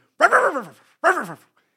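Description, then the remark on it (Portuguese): A person imitates the bark of a very small dog belonging to a lady on a pastry shop terrace, with two quick, loud vocal yaps separated by a short pause and no other sound around them. “E de repente estava, estávamos a andar e há, na esplanada, do, na esplanada da pastelaria, está tipo assim uma senhora com um cão, um boeda pequenino, e de repente eu passei e o cão fez assim.”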